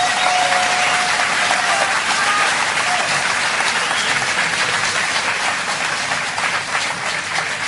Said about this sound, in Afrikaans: Ek dink ons het vir hulle 'n lekker groot hande klap gegee.